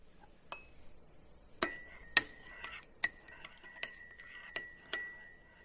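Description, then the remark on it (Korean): A spoon clinks against cups while two cups of Korean dabang-style instant coffee are stirred, about seven sharp, ringing taps at an irregular pace, fairly clear, with no one talking. “자, 이렇게 다방 커피 두 잔 만들어졌어요.”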